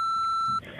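A single steady electronic beep, loud and clear, holds for about half a second before cutting off into soft background noise, like the tone that signals a voicemail recording has begun.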